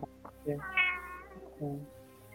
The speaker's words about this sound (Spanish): Se escucha la gata.